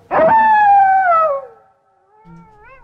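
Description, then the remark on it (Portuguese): A wolf lets out one loud, long howl that slowly slides downward in pitch, followed by a fainter, wavering howl. No one speaks. “Olha o lobo aí”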